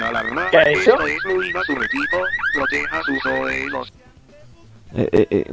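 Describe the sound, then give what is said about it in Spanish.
A loud electronic alarm wails in rapid, repeating rising sweeps for a few seconds, then cuts out abruptly. After a short near-silent pause, a voice begins speaking. “Hubiera saltado esto una, alarma.”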